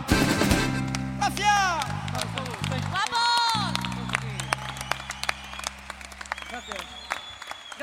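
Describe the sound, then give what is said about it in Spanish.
An audience applauds a murga group at the end of its performance, steadily for several seconds, dense crackling claps mixed with rising whoops and shouted voices, over a sustained low humming tone that fades near the end. “Oh, oh, oh, y este aplauso para ustedes de la murga ….”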